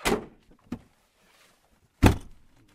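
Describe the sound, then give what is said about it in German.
The door of an old green-and-black Land Rover clunks open with a rattle, a smaller knock follows, then the door slams shut with a heavy thud. No one speaks. “steigt in seinen alten grün-schwarzen Land Rover.”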